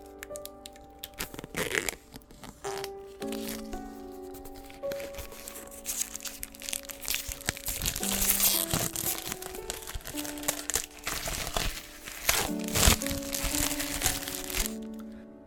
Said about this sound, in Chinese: 那这本书没有开封啊，这个那好 TVB 啊，给你们大家听一下撕塑料纸的这个声音，弄像开箱一样。